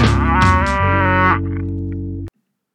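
A domestic cow moos once in a long, loud, drawn-out call that sounds slightly harsh, then cuts off abruptly into silence. No one speaks.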